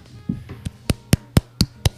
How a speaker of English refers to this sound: Ow. Stop. I was clapping into the mic.